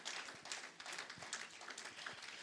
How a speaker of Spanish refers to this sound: Vamos a dar un aplauso aquí a los tres.